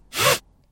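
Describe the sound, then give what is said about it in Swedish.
A voice imitates a strap being pulled tight on a tarp: one quick, raspy zip lasting about a third of a second, with a hummed tone inside the hiss, then silence. “Ja, så spänner de fast den här presenningen och så det här prasslet och så det här dra åt ljudet.”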